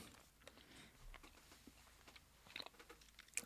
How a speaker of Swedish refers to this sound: Jag ska bara tugga ut här innan jag